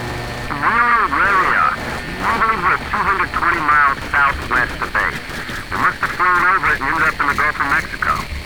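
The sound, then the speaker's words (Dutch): A radio transmission from a navy pilot to a control tower, in which a tinny, distorted voice speaks through a steady wash of static hiss and crackle on the line that runs for the whole stretch. “Hoewel moeilijk verstaanbaar door ruis op de lijn, is de boodschap duidelijk.”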